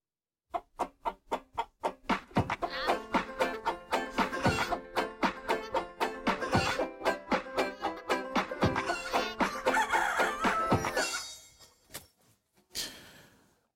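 Hens cluck in a quick, steady run of short calls, joined by a rooster crowing in longer, harmonic bursts over the busy flock, loud before fading out.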